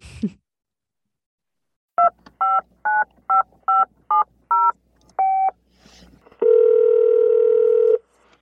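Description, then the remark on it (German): A quick series of seven touch-tone dialing beeps in a steady rhythm as a phone call is placed, then a short single tone and a long, steady ringing tone, all clear with no talking. “Ich würde sagen, dann rufen wir einfach mal an. Wir rufen ihn an.”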